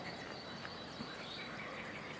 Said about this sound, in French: les batraciens se sont un peu euh, tus quand on est arrivé. Euh, sinon, ils, euh, ils envahissent tout l'espace sonore, grosse amplitude. Là, les amphibiens qu'on entend, c'est la, grenouille rieuse.